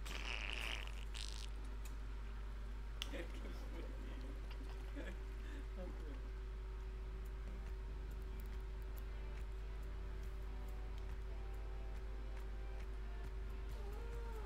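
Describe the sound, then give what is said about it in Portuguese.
A pet cat named Faísca meows a few times, with short rising and falling calls, fairly quiet against a steady low hum and faint background noise. “Ah, o, o, o meu gato Faísca, sabem que ele também fala, pensam que isto aqui é, é um gato burro, não é?”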